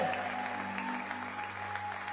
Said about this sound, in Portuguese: Se você crê nisso, dê um brado ao Senhor e aplaude aplaudo aqui.